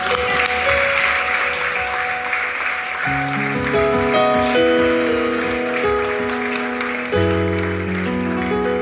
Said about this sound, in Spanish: Dele un aplauso a Jesucristo.